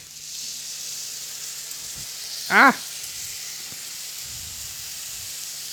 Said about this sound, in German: So, Achtung, jetzt machen wir Feuer. Oh. Löschen wir ein bisschen mit Sherry ab.